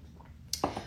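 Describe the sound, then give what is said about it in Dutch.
A quick sip of water: a sharp wet click followed by a short slurp and soft swallow, all within a second, with no talking. “Slokje water.”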